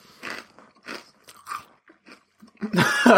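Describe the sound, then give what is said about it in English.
Crisp crunching of someone chewing Love Corn premium crunchy corn snack, with bursts of loud bites and chews spread across the moment and a louder, denser crunch at the end. “once you're done, once you're done crunching, just take your time.”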